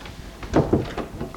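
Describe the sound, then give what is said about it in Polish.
A door, briefly opened, is pushed shut, giving a soft muffled thump with a couple of lighter clicks and rattles trailing after it against a quiet background, recorded with a microphone plugged into a Walkman. “Zamknę.”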